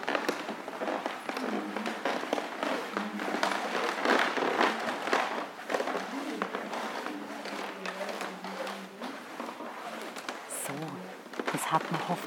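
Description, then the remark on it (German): Steady creaking and crackling of wooden floorboards underfoot in a library, with dense irregular taps and snaps as someone shuffles and slides along, fairly loud for the whole stretch. “Ich würde sagen, wir lassen, wir lassen sie jetzt mal knarren.”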